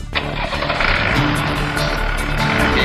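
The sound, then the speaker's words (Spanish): A Rastrojero diesel pickup truck engine is started and settles into a loud, steady, rough idle with a low rumbling drone throughout. “Bueno, acá estamos por poner en marcha el rastrojero.”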